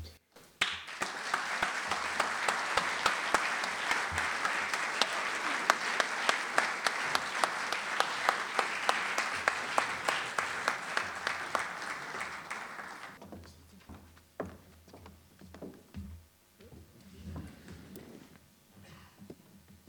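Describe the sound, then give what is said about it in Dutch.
Warm audience applause for author Maarten Boudry swells quickly into dense, sustained clapping, with individual claps standing out in a steady patter, then fades into scattered claps and faint murmuring toward the end. “Nu de meest vervelende vragen ooit stellen aan de auteur zelf Maarten Boudry, die ook van ons een warm applaus verdient.”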